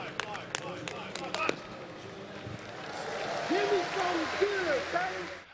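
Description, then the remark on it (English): About five sharp, evenly spaced hand claps by a long jumper's guide at the take-off board ring out in a steady rhythm as the jumper prepares for his fifth attempt, then stop, leaving a murmuring crowd and people talking in the background. “As he prepares for his fifth attempt, and you hear the clapping of his uh, guide there at the board.”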